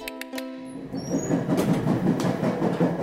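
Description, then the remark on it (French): A train in Canada rumbles along the rails, a steady low roar with rhythmic rattling, opening with a brief horn-like harmonic tone and high squeals before the rolling noise settles in. “On monte à bord d'un train”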